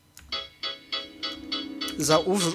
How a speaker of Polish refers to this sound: I teraz wyłączę ten głośnik. Komunikaty będą jak zawsze głośno, jak to w każdych głośnikach tego typu, ale.